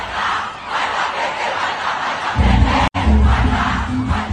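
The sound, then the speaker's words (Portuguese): A large crowd of PT militants chants a political battle cry in unison on Sunday in Belo Horizonte, a dense roar of many voices that swells louder and deeper about halfway through, broken by a split-second cut. “A senadora que declarou apoio a Lula no segundo turno considera um erro o grito de guerra cantado pelos militantes petistas no domingo em Belo Horizonte.”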